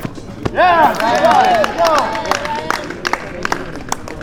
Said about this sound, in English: is the sound of team tennis.